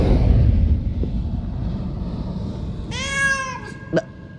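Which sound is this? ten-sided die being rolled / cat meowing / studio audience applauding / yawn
cat meowing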